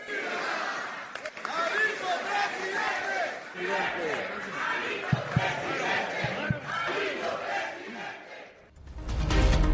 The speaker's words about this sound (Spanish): Oye, pues muy espontáneos esos gritos, así, salieron del corazón, Alito presidente.